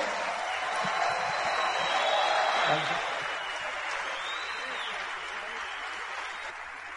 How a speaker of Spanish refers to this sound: Vamos a darle un aplauso a ambos. bien grandote.